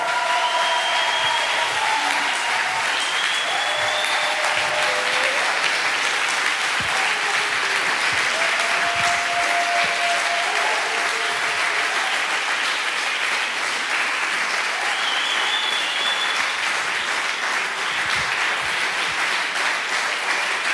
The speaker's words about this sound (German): Rastet aus, gebt ihm den krassesten Applaus in drei, zwei, eins. Jetzt, come on!